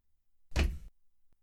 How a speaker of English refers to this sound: Knock once for yes, twice for no.